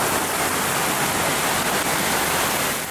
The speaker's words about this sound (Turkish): Yağışlar caddelerde çağlayanlar oluşturdu.